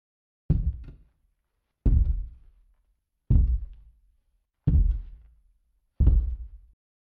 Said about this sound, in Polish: Skoro tylko zaświtało, ziemia zatrzęsła się od kroków olbrzyma.